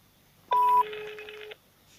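A phone being dialed: a single steady electronic beep lasts about a second, with a brief higher tone at its start, then silence. No one speaks.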